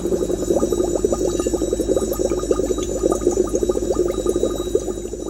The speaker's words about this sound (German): Platz Nummer 2 exklusive Tonbandmitschnitte der untergehenden Titanic 20 Minuten danach.